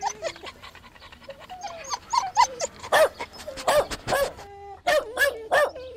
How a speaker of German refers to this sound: der kleine freche Terrier.